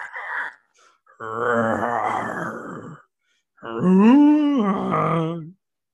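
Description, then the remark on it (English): A person imitates a bear with two long, low growling moans separated by a short pause, the second rising and falling in pitch, loud and throaty. “Bear.”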